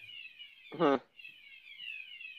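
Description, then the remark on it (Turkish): A steady, high-pitched electronic siren alarm drones continuously at moderate volume while a fire burns in a room on the floor, wavering slightly in pitch, with a brief burst of voice cutting in near the start. “Oğlum arkandan siren sesleri geliyor.”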